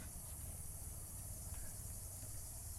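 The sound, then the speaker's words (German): A steady, continuous high-pitched buzzing drone of cicadas fills the background on a very warm day, with a low rumble underneath and no voices. “Man hört die Zikaden.”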